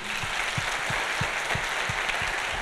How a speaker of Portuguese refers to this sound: Vamos lá, Revo Church, vamos dar uma salva de palmas muito caprichada para os pais hoje aqui.